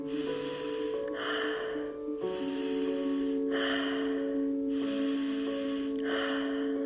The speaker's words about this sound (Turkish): Nefesime odaklanıyorum. Burnumdan uzun ve derin çekiyorum nefesimi. Ağzımdan rahatça bırakıyorum. Alıp verme arasında beklemiyorum. Alıyorum nefesimi, hemen veriyorum. Ardından beklemeden yine hemen alıyorum.